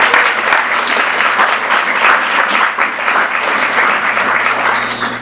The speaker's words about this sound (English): Um, but with that, I just wanted to give another round of applause and then I'm going to open it up.